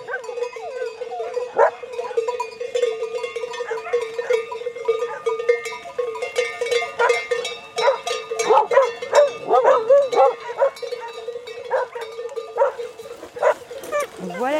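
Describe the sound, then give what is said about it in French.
Patou livestock guard dogs bark in scattered, repeated bursts among a flock of ewes, while sheep bells clank steadily throughout and faint voices murmur in the background. “Les patous, on doit d'ailleurs garder plus de distance avec eux parce qu'ils doivent rester avec les brebis.”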